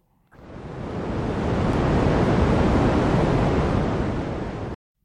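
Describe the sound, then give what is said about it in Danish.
Steady, loud hiss of radio static from the cosmic microwave background, a dense rushing noise that cuts in abruptly, swells slightly, holds for about four seconds, then stops dead, with no voices. “For lyden, af, det, lyden, du lige hørte, det er lyden af KMB, kosmisk.”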